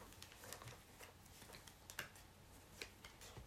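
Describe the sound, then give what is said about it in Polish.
Stiff playing cards being shuffled, a continuous papery riffling with sharp snapping clicks scattered throughout, no voices. “Kurde, są takie, no, średnie, tylko początek mi się potasował.”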